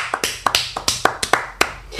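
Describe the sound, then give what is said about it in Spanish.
Hand clapping, roughly ten sharp, crisp claps in a loose, slightly uneven rhythm over about two seconds, with no talking. “Te aplaudo, Liffy.”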